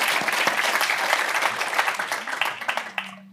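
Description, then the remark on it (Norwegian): An audience applauds steadily as panel members are called up on stage, with dense, crackling claps that thin out toward the end as a low hum emerges. “Og så må dere gjerne klappe.”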